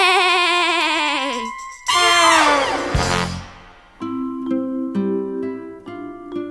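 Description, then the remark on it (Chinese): A voice imitates a little lamb bleating: two wavering, quavering bleats with a trembling pitch, the second sliding downward, followed by a few seconds of steady, sustained tonal notes. “咩，你这样真没道理，咩。”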